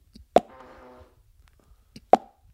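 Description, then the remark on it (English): Two sharp mouth-made pops, about two seconds apart, imitating two bottles of Bintang beer being opened on an international flight; the first is followed by a brief hissing fizz. Fairly loud, with no talking. “and two bintangs get opened.”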